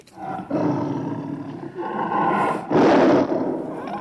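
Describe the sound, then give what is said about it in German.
A panther roars, a loud rumbling growl that swells into a harsher, more forceful roar near the end, with no voices present. “Es ist ein Panther.”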